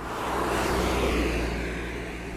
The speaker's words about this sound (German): Ah, da kommt ein Auto von hinten.